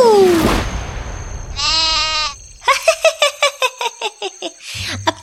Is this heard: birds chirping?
no